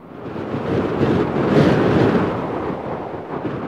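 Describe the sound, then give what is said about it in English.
Storm wind roars steadily as heavy waves pound a seawall, the rumbling wash surging louder midway before easing back, with no voices present. “And when those big waves hit the seawall, you can see movement, see curtains moving.”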